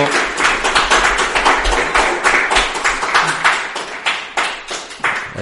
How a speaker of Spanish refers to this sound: Yo creo que les, tenemos que dar un fuerte aplauso